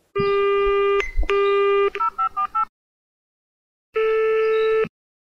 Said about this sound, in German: Sylvia Klammer hob sofort nach dem ersten Klingeln ab.